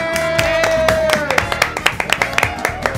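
Applause for a girl who has returned to class, steady, rhythmic hand claps, about four per second, fairly loud, with voices calling out and a sustained whoop over the start.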